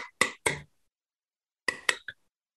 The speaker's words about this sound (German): mach du doch mal die Dose auf